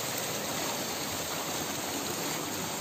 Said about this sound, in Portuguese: Mas estamos chegando na água, olha. Opa, agora melhorou. Olha só.